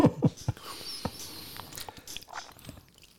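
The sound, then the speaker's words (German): Fairly quiet chewing of sticky cookies: irregular wet smacks and soft crunches over about three seconds, with no one speaking. “Kleben deine Kekse.”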